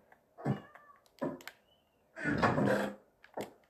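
A cat meows several times: short cries, then one long, drawn-out, insistent meow, and a brief final call. No one speaks.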